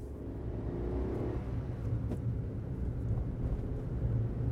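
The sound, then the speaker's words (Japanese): A car engine rumbles steadily, a low droning hum that holds for several seconds as the vehicle pulls away after the handbrake is released and the accelerator pressed, with no voices present. “片倉はサイドブレーキを下ろしてアクセルを踏み込んだ”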